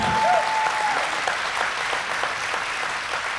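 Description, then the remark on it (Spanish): A large audience claps steadily and energetically in applause to the Lord, a dense wash of overlapping applause, with a brief tonal whistle near the start. “Dele bien fuerte el aplauso al Señor.”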